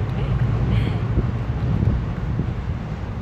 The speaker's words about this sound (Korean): 이거 바람 소리 아니에요. 이거 지하철이 다니는 소리